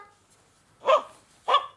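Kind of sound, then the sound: animal, dog barking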